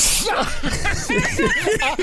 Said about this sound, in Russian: Извините, чих может обмануть мозг?